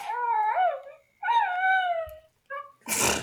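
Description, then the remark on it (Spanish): A talking Baby Yoda toy, received as a Christmas gift, makes dog-like howling and whimpering sounds: two drawn-out, wavering whining howls, then a brief yip and a sharp, noisy sneeze-like snort at the end. No one speaks. “Este es mi bebé Yoda.”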